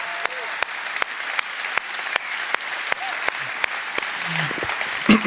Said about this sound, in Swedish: Jag tycker vi kan ge Daniel Alm en riktigt uppskattande applåd här på Nyhemsveckan ikväll.